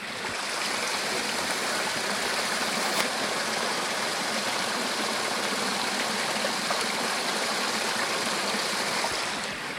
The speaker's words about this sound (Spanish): Y nada más escuchen precisamente cómo se está yendo el agua y el sonido que, que hace. Es pues, prácticamente un río.